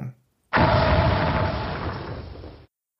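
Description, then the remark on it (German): A video game boss's death sound effect as an Iron Lich, the first boss enemy, dies: a sudden, loud explosive burst that rumbles and crackles for about two seconds before cutting off abruptly, following a brief moment of silence. “Zum Beispiel, wenn so ein Iron Lich, der erste Bossgegner, wenn die sterben, das klingt so.”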